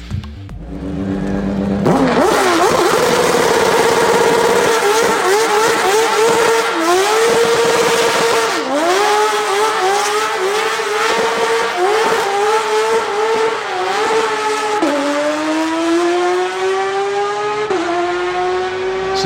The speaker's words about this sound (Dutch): maar er was vooraf een demo met Nick Tandy in de Porsche 911 RSR. Die hebben nog 30 seconden. Ja, en die, en die klonk zo.